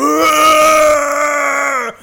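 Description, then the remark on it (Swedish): A person imitates feces screaming: one loud, drawn-out, steady wailing cry held for nearly two seconds, then cut off abruptly, with no other talking. “Till exempel att avföringen skrek.”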